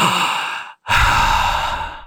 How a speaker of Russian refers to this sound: Вдыхаем, выдыхаем. Вы свое дыхание тоже делаете очень громким. Это уже команда с одной стороны, с другой стороны, это совершенно точно помогает клиенту хоть немножко справиться с собой.